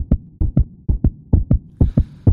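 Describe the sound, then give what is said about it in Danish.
A rapid heartbeat thumps steadily, about five quick lub-dub double beats in a couple of seconds, deep, with a faint hiss creeping in near the end; a flatfish's heart beating fast under the sand when a shark is near. “Og jeg kan love jer for, at en fladfisk hjerte slår hurtigt, når der er en hej tæt på.”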